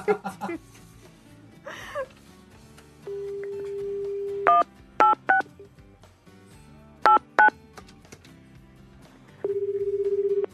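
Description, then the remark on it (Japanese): A steady dial tone gives way to a handful of sharp touch-tone keypad beeps in short irregular bursts as a phone call is dialed to a listener, loud, with brief talk and soft background noise at the start. “ちょっと電話してみましょうね。”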